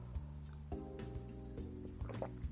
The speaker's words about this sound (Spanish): Esperen que voy a tomar un vaso de agua, me estoy quedando sin voz. ¿eh? Esto no debería hacerse en un podcast, pero ustedes son mis amigos, los considero eso y me permito hacer una pausa para tomar un trago de agua.